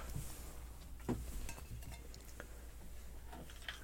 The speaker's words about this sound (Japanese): 氷を入れたグラスにコーラを入れてきました。氷にコーラ を入れてきまして、これに今からここでですね、ウイスキーを入れて、コークイらしきものを作ろうと思いますね。